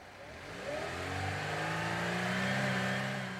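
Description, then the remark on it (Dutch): A motor engine revs up, its droning pitch climbing steadily in smooth harmonic bands and holding loud through the end, with no talking over it. “Wist je dat een klassieke motor uit meerdere cilinders bestaat?”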